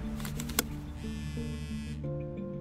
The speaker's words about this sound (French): Mais au moment de sortir de la voiture, il reçoit un appel.